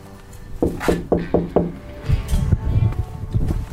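Five quick, evenly spaced knocks rap on a wooden door, close and fairly loud, followed by a muffled shuffle of movement and indistinct background noise.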